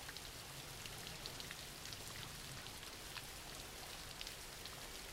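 Steady rain falls throughout, a dense hiss of drops with scattered brighter patters and a low rumble underneath, at a constant quiet level with no voices.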